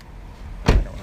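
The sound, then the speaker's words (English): A single short, sharp mechanical thunk of car doors being locked, against a low rumbling background with no voices. “sorry, I'm like making sure the doors are locked.”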